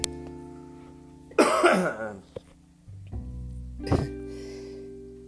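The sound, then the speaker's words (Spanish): A person coughs, a harsh burst around the middle followed by a shorter second cough, with low steady background hum throughout and no talking. “perdón, voy a toser y como dicen por ahí, no es porque tenga coronavirus.”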